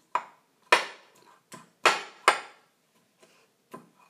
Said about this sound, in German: Wir füllen jetzt einfach die Limetten aus dem Glas, die acht Stücke, so eine Schüssel. Äh, und nehmt einfach so ein ähm, ja, so ein Messer. Und den Griff vom Messer und dann steche ich da so ein bisschen drin rum.